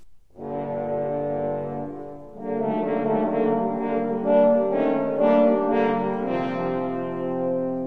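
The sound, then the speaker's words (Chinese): Horns play the wolf's menacing theme in low, sustained, brassy tones, one phrase and then a fuller, louder second phrase after a brief dip, with no voices. “小朋友们，你们听到刚才的声音，有没有觉得好像有一点点害怕的感觉呢？”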